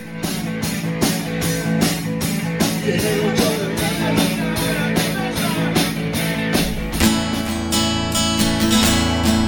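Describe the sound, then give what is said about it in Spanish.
A rock song plays on the radio, loud and full, with drums pounding out a steady, even beat under a dense wash of guitars; near the end the band shifts into brighter, sustained chords. “que sigue en la cola del ranking del rock del 9 con cero votos y suena así.”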